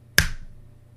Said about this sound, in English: There was a popping sound, like fingers snapping.